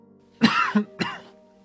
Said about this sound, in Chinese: 看到他的举动，风正苏咳嗽了一声，那男子一哆嗦，下意识的目光朝风正苏的方向看了过来。